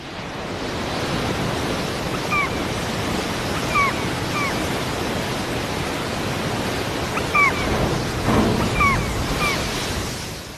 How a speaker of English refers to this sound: Waves break on the bow of the Commandant Charcot.